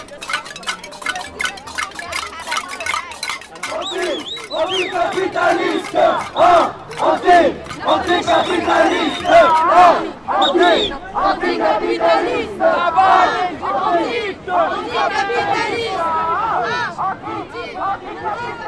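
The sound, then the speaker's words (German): A large group from Quebec at a demonstration clatters and bangs on metal pots in a fast, uneven din, with shouting and chanting voices rising over the clanging as it carries on loudly throughout. “Gleich daneben klappert eine größere Gruppe auf Töpfen.”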